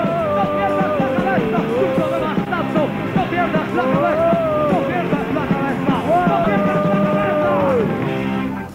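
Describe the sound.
A dense crowd shouts and cheers continuously at the end of a concert during the San Isidro festivities, as people climb onto the stage to sing; many voices overlap into a loud roar with drawn-out yells rising above it, sustained for several seconds before easing off at the very end.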